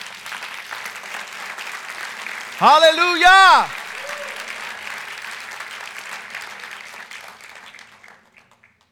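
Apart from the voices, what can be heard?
applause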